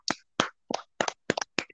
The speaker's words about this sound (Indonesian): ya allah keren tepuk tangan untuk saya